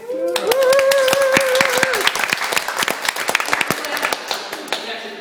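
A small round of applause: a few people clapping in quick, uneven bursts for about five seconds, with a sustained voiced cheer held over the first two seconds before the clapping trails off.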